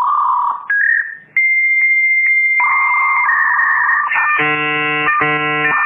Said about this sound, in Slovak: Toto bolo vytáčanie modemu keď sa snažil pripojiť na internet v 90. rokoch.